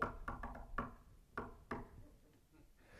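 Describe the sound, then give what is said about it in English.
Someone raps on a door in a patterned rhythm, about six sharp knocks, quick at first and then spaced out, followed by quiet room tone with no talking. “We have to remember that sometimes if we really want that door open, or give the old.”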